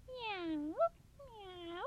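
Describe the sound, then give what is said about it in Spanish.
A person imitates a cat with two drawn-out, rising meows in a row, the voice clear, with a brief squeak between them and low background hum, voicing the cat character while telling a story in Spanish. “y yo, el gato, miau, me fui detrás.”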